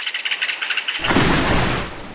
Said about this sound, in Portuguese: Esse é o barulho do mergulho do Martim Pescador Grande, o personagem de hoje dos Sons da Terra.